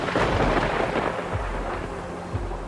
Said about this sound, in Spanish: El Papa decide que no se va, que se queda allí, soportando la tormenta debajo de la lluvia, tapado con varios paraguas por culpa del viento.